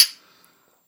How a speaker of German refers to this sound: Aber gut, Stößchen.